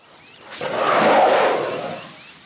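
A loud, drawn-out elephant call, rough and roaring, swells up after a brief quiet start, peaks midway, then slowly fades, with no voices present. It is a friendly signal: one elephant calls to communicate and a second elephant answers.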